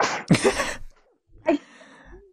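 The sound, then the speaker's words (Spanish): A single sharp sneeze, a quick breathy intake bursting into a loud explosive blast, followed after a short pause by a softer breathy vocal sound. “Salud.”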